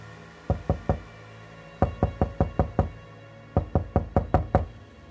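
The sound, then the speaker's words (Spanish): Loud knocking on a bedroom door comes in three bursts: three sharp raps, then two quicker runs of about six knocks each, separated by brief pauses. No one speaks. “Tres violentos golpes me sacan del somnoliento trance.”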